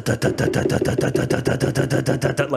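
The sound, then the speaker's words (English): A voice imitates the knocking engine of a car that has pulled up at a house and is still running, producing a rapid, steady train of about fourteen sputtering pulses, fairly loud, with no talking. “And so then I pull up back at the house, and when I pull up at the house, it's like still going like it's like like”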